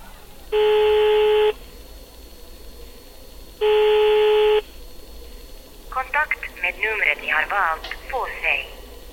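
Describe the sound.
Two steady electronic telephone tones, each about a second long and separated by a two-second pause, sound clearly over a quiet line hiss as a call is placed to a mobile phone that cannot be reached, followed by a voice speaking over the phone line.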